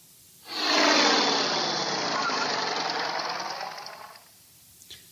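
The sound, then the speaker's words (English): An airplane engine flight sound effect for a flight to London: a steady, broad roaring drone with a fast rattling texture swells in quickly, holds for about four seconds, then fades out, leaving a brief faint click. “Buckle your seatbelt, and I'll fly us there now.”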